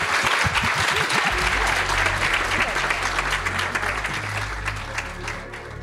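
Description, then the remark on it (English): A large audience applauds steadily at the International Music Summit in Ibiza, dense clapping at full volume for several seconds, with a low musical drone humming underneath and faint voices mixed in. “Um, everyone, make some noise now”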